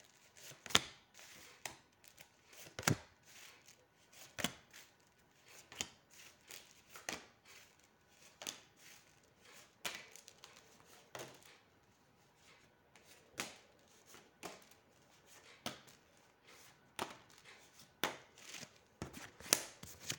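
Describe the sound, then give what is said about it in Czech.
Tarot cards being shuffled for about twenty seconds, a steady series of sharp papery snaps and riffles in uneven rhythm, with no talking. “A já už se dívám na vaši fotku, míchám u toho karty a podíváme se teda spolu, co nám tady odřekne období od teď cca do konce února 2023.”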